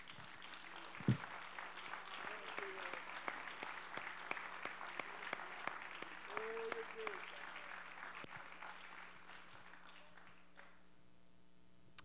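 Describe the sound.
An audience breaks into sustained applause as a hand clap of praise to the Lord, dense overlapping hand claps with scattered voices and cheers underneath, holding steady for several seconds before thinning out and fading near the end.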